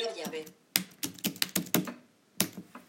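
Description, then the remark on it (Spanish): A short burst of speech gives way to about seven crisp, irregular, fairly loud key clicks as someone types a network password on braille display keys to connect to an iPhone's personal hotspot. “Yo escribo aquí la clave de red.”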